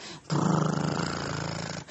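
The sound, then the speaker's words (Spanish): A deep, loud purring rumble with a fast, fluttering pulse, holding steady for about a second and a half before cutting off. It is heard alone, with no talking. It is the purr of a giant black cat almost three metres tall, on a huge mattress. “No hubiera dormido ni una hora cuando de repente sintió sobre el colchón un ronroneo inmenso”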